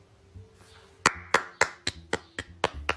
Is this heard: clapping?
yes